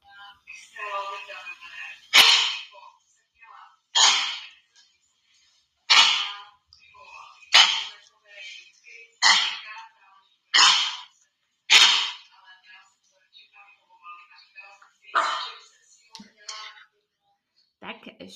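A dog named Izinka coughs in a series of about ten harsh, hacking bursts, spaced a second or two apart, with raspy wheezing between them and a short pause before the last few.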